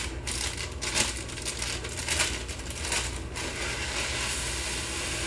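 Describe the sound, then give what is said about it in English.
Rice Krispies cereal, about six cups, pours into a peanut butter mixture with a steady, dry crackling rustle and a few louder rattling bursts in the first few seconds, continuing evenly with no talking. “So once, once that's a little bit mixed together, just take your Rice Krispies, pour them in there also.”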